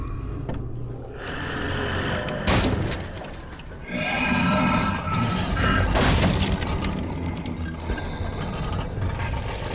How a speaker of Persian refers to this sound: چند دقیقه بعد صدای شلیک از داخل راه رو اومد و در باز شد